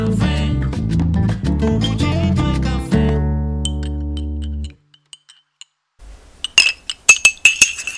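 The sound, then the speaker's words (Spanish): A music passage fades out, and after a short silence a coffee cup clinks several times in quick succession as the first sip of cooled coffee is taken, bright, ringing ceramic taps of moderate loudness with no talking. “El café ya se refrescó, así que me voy a dar el primer sorbito del día para empezar rápido la jornada informativa que está llena, llena de temas y noticias.”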